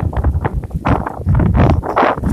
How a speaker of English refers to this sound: Woo, super windy. Big gust coming through. Holy cow. I'm just gonna watch the trees above me for a second, make sure I'm not in danger.